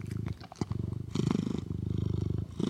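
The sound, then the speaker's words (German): A cat purring, a steady low rumble pulsing in a quick regular rhythm, loud and continuous with a couple of brief breaks, and no talking over it. “Katzenmeditation.”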